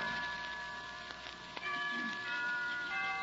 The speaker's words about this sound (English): Why don't we both just sit here and listen to the chimes for a while?